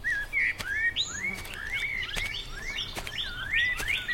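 A common blackbird sings and chirps from a tree in a garden in a steady string of bright, rising whistled notes, clear, with a few sharp clicks between phrases and no talking.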